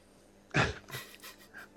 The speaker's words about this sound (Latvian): Bet kā mēs palikām pirms sunis rēja?